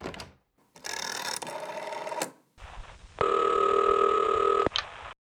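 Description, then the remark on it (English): A telephone being dialed: a mechanical whirring and clicking for a second or so, a brief pause, then a steady buzzing tone on the line. No one speaks. “I'll be quiet and they'll think oh, but if I don't call someone now while they're still down there, there'll be no time.”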